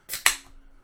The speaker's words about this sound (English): But first, I'm gonna need to crack another beer.